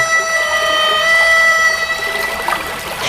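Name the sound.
harmonica being played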